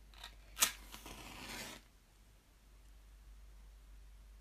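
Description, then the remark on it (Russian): A candle being lit: a few faint scratches, then one sharp strike and a hissing flare lasting about a second before it falls quiet. “А, давайте зажжем свечку для начала.”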